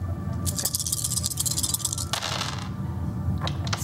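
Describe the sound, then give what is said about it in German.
Several dice, including a stress die, rattle and clatter across a hard surface during a game in a quick jumble of sharp clicks, with a second burst of tumbling a moment later, fairly loud with no one speaking. “Äh, der Captain hat leider zwei Sechsen gewürfelt.”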